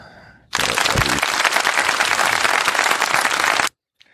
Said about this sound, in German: Und einen kleinen Applaus, kannst du Applaus einspielen? Ja. Bitte.